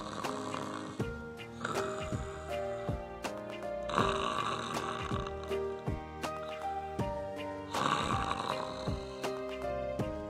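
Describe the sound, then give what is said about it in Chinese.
A cat snores in slow, repeating cycles, each breath a raspy, rumbling swell, heard over a steady, tonal musical backing with no talking. “猫干嘛呢？打起呼噜来了。”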